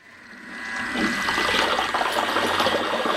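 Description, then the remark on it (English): A thermal mixer stirs and heats liquid toward about 90 degrees Celsius so it does not stick to the bottom: a steady churning, swishing wash swells up within the first second and keeps going, fairly loud, with a faint mechanical hum underneath and no talking. “I've got one of those thermal heaters that will enable me to do this. So I'm just going to get it mixing so that it doesn't stick to the bottom and I'm going to heat it to about 90 degrees Celsius.”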